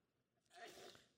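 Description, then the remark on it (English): A single sneeze bursts out, a sharp breathy blast lasting well under a second before a voice starts to speak. “Oh, bless you. Bless you, man.”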